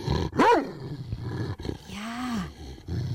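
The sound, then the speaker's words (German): A dog in a bad mood gives a loud, harsh vocalization that rises into a snarl, followed by a lower drawn-out growl, with a short spoken word heard in between. “Das war ein Hund, der gerade nicht so gut gelaunt ist.”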